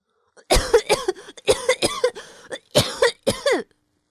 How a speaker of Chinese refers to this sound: 变色龙啊，被水呛得直咳嗽。